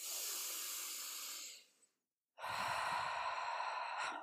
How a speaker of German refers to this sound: Sei dankbar dafür, dass du tief atmen kannst